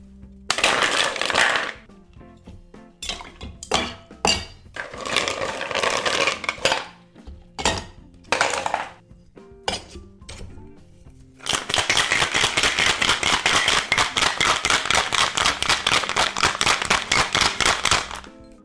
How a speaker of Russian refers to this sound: 50 мл клюквенного сока, 20 миллилитров ликера Кентрау и 40 миллилитров цитрусовой водки – Наполним шейкер льдом и все хорошо перемешаем.